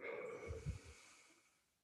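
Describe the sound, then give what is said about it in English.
A soft, slow breath out during a guided breathing meditation, airy, with a slightly heavier puff in the middle before it trails off into quiet. No one speaks. “And breathing out,”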